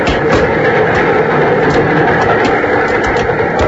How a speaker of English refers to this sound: There was no answer, and suddenly I realized that I was hanging on the side of a speeding train. I climbed slowly up the iron ladder, the wind tearing against my body.